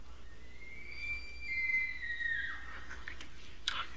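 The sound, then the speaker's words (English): An elk bugles once: a long, high, whistling tone that rises, holds for a couple of seconds, then slides down, followed by a short grunt, over faint background hiss. “That's elk.”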